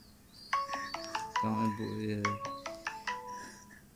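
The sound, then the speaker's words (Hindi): A mobile phone ringtone plays a bright melodic tune of quick stepped notes, fairly loud, with a voice briefly overlapping partway through. “किसका फोन है”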